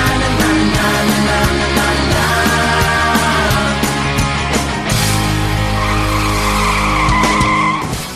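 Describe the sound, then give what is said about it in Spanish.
A car skids hard while braking in a turn, tires squealing loudly and continuously for several seconds over a rough, roaring engine, with sharp scraping bursts throughout and no talking. “Ahí está, cómo acabó el coche, ¿no? En ese freno, en ese giro, seguramente que controló mal.”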